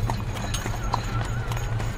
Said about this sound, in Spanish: Caballos espectrales vuelven a poner en marcha el carruaje.